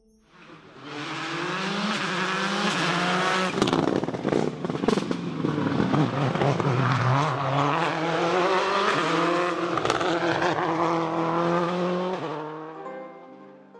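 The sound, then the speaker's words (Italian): The Subaru Impreza rally car of multiple world rally champion Colin McRae roars for over ten seconds, revving hard with rising and falling pitch, sharp popping bursts of exhaust crackle mixed in, then fades out at the end. “Avete sentito questo rombo di motore? Eh sì, era la Subaru impresa del più volte campione del mondo di rally Colin McCree.”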